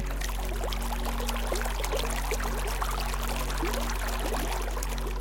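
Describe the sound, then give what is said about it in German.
A small stream of water trickles and burbles steadily over pebbles and around rocks, with a continuous bright splashing texture and no voices, holding an even level throughout. “Beobachtest die zahllosen, sich immer wieder neu miteinander verbindenden Tropfen, die kleinen Ströme, die nie ruhen und doch nie ermüden.”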